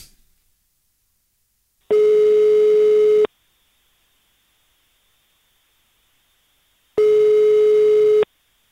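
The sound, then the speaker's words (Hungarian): A telephone ringback tone while a call to the listener of the day connects: two steady, buzzy tone bursts, each about a second and a half long, separated by a few seconds of silence. No one speaks. “Na hívjuk gyorsan a naphallgatóját közben.”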